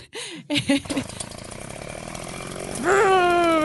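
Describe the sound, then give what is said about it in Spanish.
A voice imitates a chainsaw, sputtering a few times and then revving into a loud, sustained buzzing drone that climbs in pitch near the end; children imitating chainsaws with their voices while recording a homemade horror film. “nosotros grabábamos estas películas de terror, pero simulábamos las motosierras y el desmembramiento y todo lo que está mal.”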